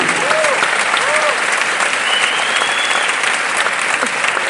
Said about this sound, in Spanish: Ustedes entenderán lo que es eso cuando tengan un diamante o varios diamantes en su organización. Un aplauso para nuestros diamantes.